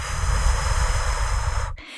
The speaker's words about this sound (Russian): Меня перед родами учили, как правильно дышать для того, чтобы тебе в процессе было легче. И один из типов дыхания – ты вдыхаешь носом и вдыхаешь ртом шумно так долго.